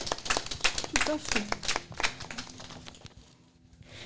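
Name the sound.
audience applauding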